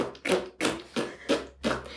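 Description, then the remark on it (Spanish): A voice imitates a loud fart with five short, forceful bursts in a steady rhythm, with no talking in between. “No fue como esos pedos silenciosos, sino que sí fue como de.”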